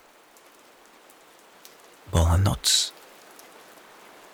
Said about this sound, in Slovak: a silno pršalo.